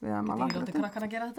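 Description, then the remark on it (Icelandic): A few light, sharp clinks from a mortar being handled, scattered over about a second and a half, partly under a person talking continuously. “hér er mortalinn sem ég hef verið að nota”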